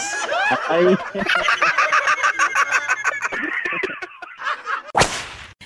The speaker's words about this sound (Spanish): ¿Por qué de gallo a grillo? Porque se despierta con el canto del gallo.